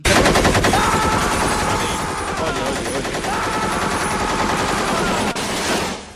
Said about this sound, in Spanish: A ver, eh, yo sé que ya tenías la metralleta cargada, pero digo.